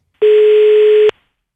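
A single loud, steady telephone ringing tone as a phone call is placed, lasting just under a second, starting and stopping abruptly, with no voices.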